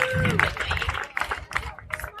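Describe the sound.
An audience bursts into applause, a dense patter of many hands clapping together with crowd murmur and a few voices calling out over it, steady and fairly loud throughout.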